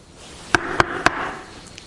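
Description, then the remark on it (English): A woman knocks three sharp, evenly spaced times on the wooden door of a house, firm and hollow-sounding, followed by a brief quiet moment with no voices. “She knocks on the door, and she's expecting two rubles.”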